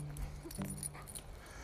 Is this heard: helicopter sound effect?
no